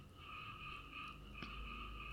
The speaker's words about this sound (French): Je ne sais pas si vous pouvez entendre les grenouilles qui commencent à chanter.